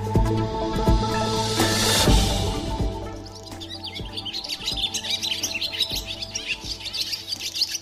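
More than a dozen swallows, caught in a bird-protection net under a bridge in Augsburg, chirp and twitter busily, a dense run of rapid high tweets over a steady low background hum, with no voices present.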